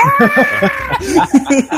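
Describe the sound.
A voice imitates a game character's bizarre scream, given when a pact is made: short strained bursts of warbling shriek, rising and wavering, fairly loud, with no ordinary speech around it.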